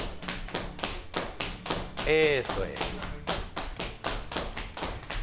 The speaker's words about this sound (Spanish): Y esto se convierte en un zapateado básico para el folclore mexicano, que es un zapateado de tres tiempos. ¿Mm? Lo hacemos silencioso con las puntas. Ahora, apóyense de una mesa, apóyense de una silla, vamos muy suave.